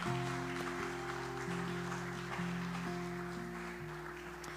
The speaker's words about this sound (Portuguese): E se você crer dê uma salva de palmas a Jesus.